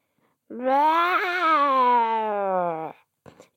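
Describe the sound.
A human voice imitates a baby zombie's wail: one long, loud, strained moan that sags slowly in pitch over about two and a half seconds, followed by a short breathy sound.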